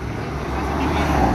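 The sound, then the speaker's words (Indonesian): A heavy truck rumbles past, its deep engine drone steady and swelling slightly louder toward the end of the short stretch. “masa ngomongin percintaan ada truk lewat berhenti gitu anjing.”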